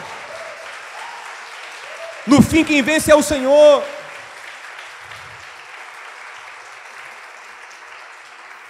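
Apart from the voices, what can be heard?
audience applauding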